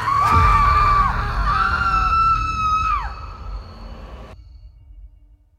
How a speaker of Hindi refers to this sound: सभी ये देखकर बुरी तरह चीखने लगे